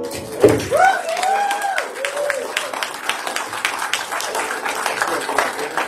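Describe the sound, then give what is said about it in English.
An audience breaks into sustained applause, dense overlapping claps continuing steadily for several seconds, with a couple of voices cheering and whooping near the start. “can we give him one more round of applause?”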